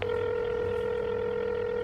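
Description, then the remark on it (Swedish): A steady electronic telephone ringing tone hums on without a break for about two seconds, fairly loud, with no voices: a phone call placed from a train approaching Norrköping, answered after two rings. “Valde Rogers namn i samtalslistan. Han svarade efter två signaler.”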